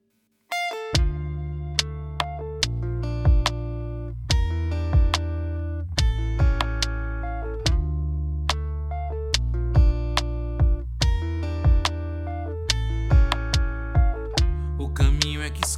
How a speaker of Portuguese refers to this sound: Vamos ouvir agora um trecho da música …